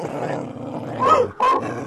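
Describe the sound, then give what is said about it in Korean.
A dog growls in a low, continuous rumble, then lets out two short, sharp barks near the end. “아, 왜또 들어왔어 아, 안돼 안돼 안돼 안돼 멍멍 그거 먹는 거 아니야 치치 치치”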